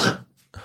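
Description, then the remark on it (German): A sudden, loud sneeze bursts out with a hissy, breathy blast that quickly dies away, followed after a brief pause by a softer second puff of noise. “Gesundheit.”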